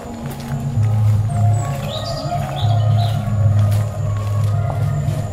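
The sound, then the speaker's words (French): Scattered bird chirps and tweets come through faintly, a few short calls in the middle, over a loud, steady low rumble and hum of outdoor background noise. “Prends le, prends le son des oiseaux.”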